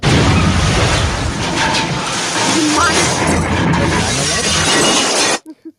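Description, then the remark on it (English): A loud plane-crash sound effect: a dense, roaring wall of noise with shattering and booming debris that holds steady for about five seconds, then cuts off abruptly into near silence. “that's a plane crashing.”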